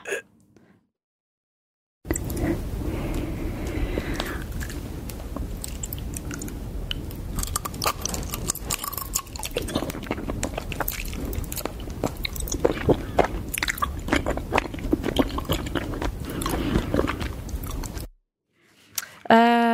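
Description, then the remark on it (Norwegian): A girl eats sticky honeycomb, recorded with a highly sensitive microphone: continuous chewing with wet, sticky smacks and crunchy bites, dense and rhythmic for about sixteen seconds, loud with no talking. “overskriften på YouTube-videoen er ASMR Honeycomb Extremely Sticky Satisfying Eating Sounds”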